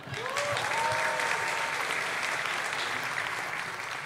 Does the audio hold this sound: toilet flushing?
no